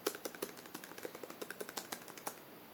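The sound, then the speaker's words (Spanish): A steady run of about sixteen crisp clicks from keys being pressed on the Perkins braille keyboard of an opened braille device, tapping out an uneven typing rhythm with no voices. “Eh, si abrimos el aparato, lo primero que encontramos es el teclado Perkins”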